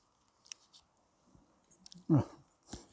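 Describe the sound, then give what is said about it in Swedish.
A wet slurping sip of thick, slightly yellow, slime-like energy gel, with small squishy mouth clicks scattered across a few seconds, a short voiced hum, then a final soft slurp. “Jag tar en liten slurp och så får du ta resten.”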